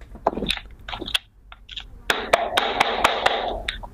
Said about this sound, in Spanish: ¿Qué tengo en mis manos, Nacho? Una puerta. No, el libro de Mario Lebrero, Cuentos Completos.